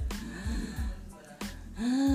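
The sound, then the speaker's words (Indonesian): A voice imitates labored, wheezy asthmatic breathing, as if clogged and short of breath: a few strained gasping breaths with raspy whistling tones, fairly loud, ending in a long drawn-out wheeze. “kayak kesumbat gitu susah napas sesak iya. napas asma berarti asma mirip asma”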